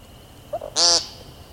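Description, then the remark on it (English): A single harsh, buzzy nasal "peent" call of an American woodcock, loud, preceded by a couple of soft clucking notes against a quiet outdoor background. “Their brown and black speckles camouflage them perfectly until they sing, which sounds less like singing and more like yelling the word peent over and over.”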